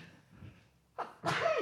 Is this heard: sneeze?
yes